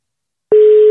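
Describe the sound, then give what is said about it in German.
After a brief silence, a telephone ringing tone starts as a call is placed to an outside correspondent: a single loud, steady mid-pitched buzz that holds evenly without wavering, with no voices. “Äh, es es, so, es läutet dem.”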